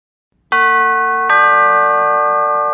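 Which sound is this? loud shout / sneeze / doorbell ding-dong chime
doorbell ding-dong chime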